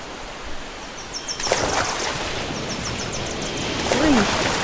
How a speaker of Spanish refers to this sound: está súper fría el agua. No te alejes mucho porque las olas están un poquito altas.